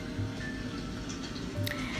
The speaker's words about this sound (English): I cut on music. Either it's nature music, like you hear in the background with the water and the nature sounds